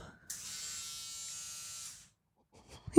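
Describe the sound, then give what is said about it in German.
A small electric nose hair trimmer with a metal head bearing six or eight notches buzzes steadily for nearly two seconds during a live test, then cuts out, followed by a short burst of a voice. “Also so, so ein oh Nasenhaarschneider.”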